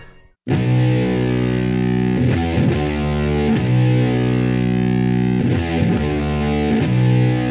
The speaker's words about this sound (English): Song is … off of their … uh, EP that Goner Records re released a few years back